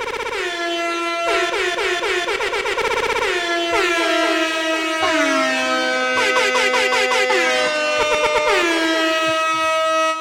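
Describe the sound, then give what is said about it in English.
Loud, repeated air horn blasts played from a soundboard fire off in quick, stuttering bursts, some pitch-sliding, filling the whole stretch with blaring, brassy honks and no talking underneath. “I'm going all the way to my to my air horn page.”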